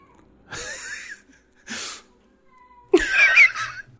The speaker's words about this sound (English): Shut up, cat.